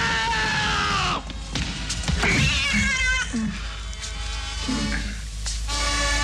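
A cat yowls loudly in long, wavering cries, harsh and strained, repeated several times with brief pauses, dominant throughout, with some scuffling noise underneath.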